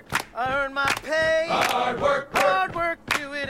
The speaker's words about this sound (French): 50 uh, running cadences of the US military.